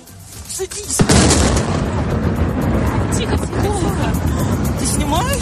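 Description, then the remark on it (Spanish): A sudden, loud explosion from the Russian invasion of Ukraine bursts out near the start, followed by sustained rumbling and chaotic background commotion, with voices and shouting mixed into the noise. “Y este sábado se cumplen dos años de este sonido.”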